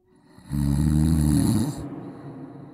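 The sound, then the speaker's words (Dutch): A single loud, rasping snore, a deep vibrating inhale lasting over a second before fading into quieter breathing. “Snurken: hoe kan je dat oplossen? En wat zijn de oorzaken?”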